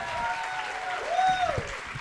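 An audience in Paris claps steadily for about two seconds, a dense wash of many hands at moderate volume, with faint murmurs and a brief rising tone drifting through the noise.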